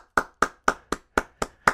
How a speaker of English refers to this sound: I love it, man. Wow. I'm applauding right now.